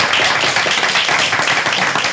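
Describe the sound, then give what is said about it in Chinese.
A crowd applauds steadily for a couple of seconds, many hands clapping at once into a dense, loud wash of crackling bursts with no pauses or voices standing out, giving a speaker encouragement. “先给他鼓励一下。”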